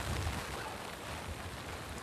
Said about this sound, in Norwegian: Her er altså hagl, regn liten kuling.